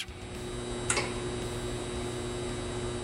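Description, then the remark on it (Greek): A steady electrical hum from a high-voltage power pylon at an industrial facility, a constant buzzing drone with faint crackle, heard alone at moderate level with one brief sharper crackle early on. “Ο ενοχλητικό ήχο που ακούτε είναι ο ήχο ενό πυλώνα ηλεκτρικού ρεύματο σε βιομηχανική εγκατάσταση.”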